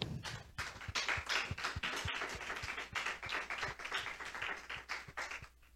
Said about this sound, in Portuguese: Amém. Aplauda Senhor.